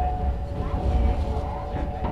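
A Hakone Tozan Railway mountain train running on the Sounzan–Gora–Miyanoshita line near Kowakidani Station in Hakone, Japan, with a steady low rumble and a faint humming motor tone held throughout, plus soft rattles from the wheels. No voices are heard.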